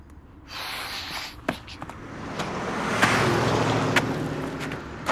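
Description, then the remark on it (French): A single small car passes by, its broad road noise rising to a peak midway and lingering, with a few brief clicks and breathy sounds at the microphone. “Une seule voiture. Une, une. Une petite putain de petite voiture”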